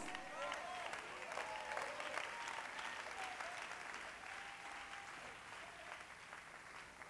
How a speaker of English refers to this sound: One more time, clap your hands to the Lord and give God praise.